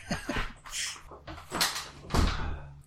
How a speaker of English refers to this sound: And by the way, my wife is pulling in, so I gotta close the door